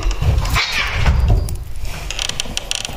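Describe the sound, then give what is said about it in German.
Cats cause a brief commotion: soft thumps and scrabbling, then a run of rattling, clicking clatter, with no voices. “es geht, es gehen die Katzen ja ab.”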